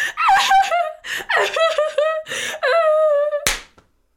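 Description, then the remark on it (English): A single sharp slap cracks out near the end, right after a stretch of strained, wavering vocal sounds, then quickly fades to silence. “what did you slap me for?”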